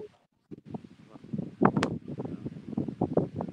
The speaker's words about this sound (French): parce qu'effectivement le vent se lève un petit peu. Euh... Ouais, beaucoup de vent. Voilà, beaucoup de vent.